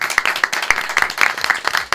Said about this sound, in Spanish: así que un aplauso aquí para sí, por, favor.